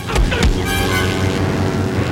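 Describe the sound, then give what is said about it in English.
Loud, dense orchestral film music at a driving action tempo that suddenly goes way up, with sharp percussive hits in the opening half-second over sustained brass and string tones, scoring a fight scene by a plane at an airfield. “Then, once the plane accidentally starts moving and Marion gets trapped in the cockpit, the tempo of the music suddenly goes way up.”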